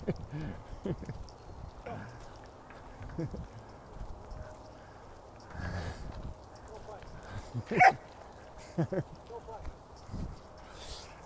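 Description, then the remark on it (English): A lively dog, let off its leash, barks and yips in scattered bursts while playing with a bigger dog, with sharper, louder yaps near the end and quieter scuffling and muffled voices in between. “very energetic, fun dog.”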